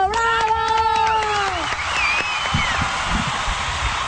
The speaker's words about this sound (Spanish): ¡Un aplauso!